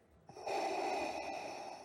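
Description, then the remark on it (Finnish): A loud, heavy breath drawn in, rasping and sustained for over a second with a slightly mechanical, hissing edge, and no talking. “Liittyykö tuo hengittävä kaveri jotenkin tähän liittymään bisnekseen?”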